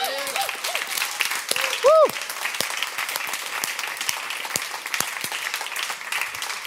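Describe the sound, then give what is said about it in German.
An audience applauds steadily for several seconds, a dense crackle of many hands clapping, with a few brief vocal whoops rising above it, one loud cheer early on. “Aber man kann so, ja, ist ein Applaus wert, oder?”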